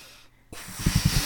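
Someone blows up a silver balloon: after a short quiet gap, a steady breathy rush of air begins, joined by a few low, rubbery puffing pulses toward the end.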